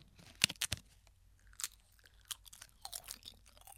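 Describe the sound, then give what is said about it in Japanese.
Crisp, crackly bites of plain dried nori seaweed from the Ariake Sea in Fukuoka being tasted, starting with a couple of sharp crunches and followed by lighter, irregular crackles of chewing, with no talking. “本当あの海苔だけの試食もちょっと珍しい気がするんですけどちょっといただきますね、はい、あいい音”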